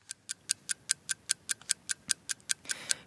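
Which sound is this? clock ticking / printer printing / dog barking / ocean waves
clock ticking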